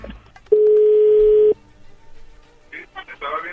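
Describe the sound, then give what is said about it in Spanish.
A telephone call being dialed to offer a promotion: one loud, steady, low-pitched tone holds for about a second, then cuts off, followed by a short stretch of someone talking. “Bueno, ya se está marcando, no haga ruido, por favor.”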